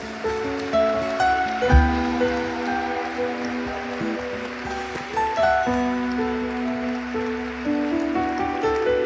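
An audience applauds for God in a dense, steady wash of clapping that holds for about nine seconds, with sustained musical chords playing underneath and no talking.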